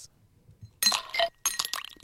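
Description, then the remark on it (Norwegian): Ice cubes drop into a glass in two quick bursts, each a bright cluster of clinks and rattles, fairly loud against a quiet background. “Isbiter som faller ned i et glass.”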